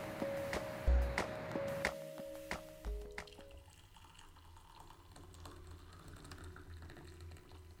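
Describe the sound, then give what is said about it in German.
Lavender verbena tea is poured into a cup in a steady stream after a few sharp clinks of crockery at the start, with no voices. “Wer hat eingegossen?”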